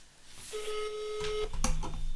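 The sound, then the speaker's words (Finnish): A single steady electronic ringback tone hums for about a second on a phone line, then cuts off, followed by a sharp click and faint line noise as the call connects. “No niin, kokeillaan soittaa.”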